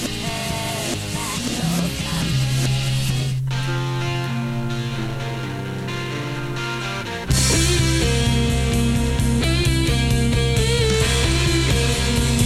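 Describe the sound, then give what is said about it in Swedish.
An opening music track plays from a record, loud and full with sustained instrumental tones, shifting to a busier, brighter section about halfway through. No one speaks over it. “Den låter från början, då, första låten, låter så här.”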